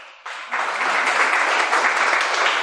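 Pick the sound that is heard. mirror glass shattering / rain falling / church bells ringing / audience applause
audience applause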